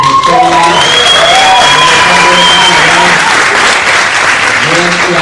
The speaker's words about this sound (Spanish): Creo que no han llegado, pero pues un aplauso para ellos.